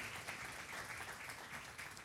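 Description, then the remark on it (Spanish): A crowd applauds a mother and son invited onto the stage, a dense, continuous wash of many hands clapping at once with no pauses, holding a fairly even level throughout. “Mamá, hijo, un aplauso, por favor, para mamá e hijo.”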